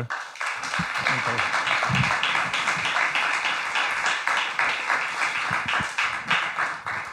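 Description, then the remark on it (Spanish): Sustained audience applause for the technicians at the Teatro del Barrio, a dense wash of many hands clapping steadily for several seconds at a fairly loud, even level, with a few faint voices mixed in. “Y un aplauso, por favor, a, Dani y los técnicos.”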